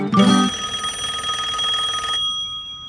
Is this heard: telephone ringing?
yes